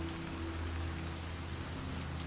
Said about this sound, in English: As the rain drums upon the windows